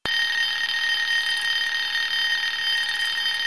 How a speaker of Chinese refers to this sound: 一个电话瞬间吵醒了李军。奇怪的是，李军并不认识这个电话，疑惑的接通了电话。